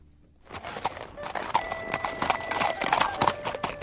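A ridden horse's hooves clip-clop in a steady walking rhythm, sharp knocks repeating after a brief silence, with a faint sustained ringing tone underneath.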